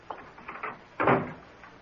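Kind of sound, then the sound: household object, door being closed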